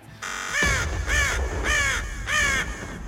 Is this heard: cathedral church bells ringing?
no